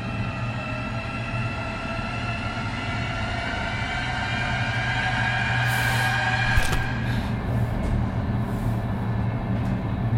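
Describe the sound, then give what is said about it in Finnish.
A moving train rumbles steadily along the tracks at unchanged speed, with a continuous low roar and a faint metallic whine layered on top, unbroken, with one brief clank partway through. “Junan vauhti pysyy ennallaan.”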